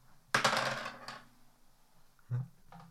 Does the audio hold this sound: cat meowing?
no